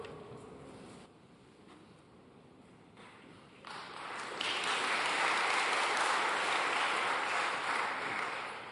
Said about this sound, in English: That is worthy of applause.